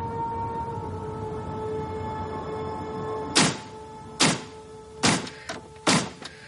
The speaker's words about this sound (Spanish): Fuera, los coches circulan por el puente de Manhattan.